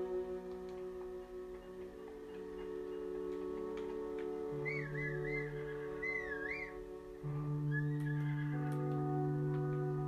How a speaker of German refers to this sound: Nein, es rennt weg. glaube, das ist dieses weiße Pferd.